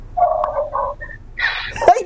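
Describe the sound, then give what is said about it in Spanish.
A person imitates a dog barking, making several short, yappy bark sounds in quick, uneven succession, fairly loud. “Sos muy bueno haciendo ladridos”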